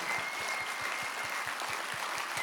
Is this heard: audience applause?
yes